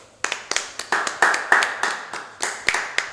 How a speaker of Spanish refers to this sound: Sí, algo que es muy feliz y me, pone muy feliz que se encuentre en tendencias es que es el Día del Enfermero. Sí, un aplauso.